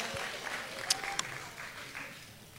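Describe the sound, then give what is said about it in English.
A church audience applauds steadily as praise to the Lord after a prayer, a soft wash of many hands clapping with a couple of sharper claps standing out midway through. “Give the Lord a hand clap, give him a praise.”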